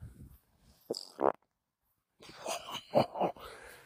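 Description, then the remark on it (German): A fart sounds: two short blasts, a brief pause, then a longer, sputtering release that pulses several times before trailing off. No one speaks. “da kommt gerade Fax für ein Trittin aus Darmstadt”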